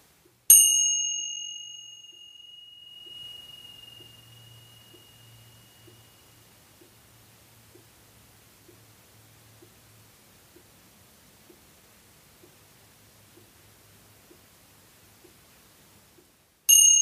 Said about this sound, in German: Und dann zeige ich dir mal, wie so eine Zimbel klingt.